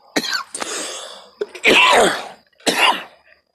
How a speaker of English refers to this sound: you can always tell it's a podcast after payday because I cough a whole lot more.